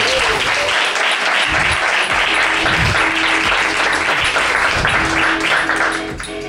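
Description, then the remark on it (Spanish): A crowd applauds steadily with dense, crackling claps that stay loud throughout, tapering slightly at the very end; no one speaks over it. “Bueno, me podéis aplaudir que tengo que hacer solo el podcast, por favor.”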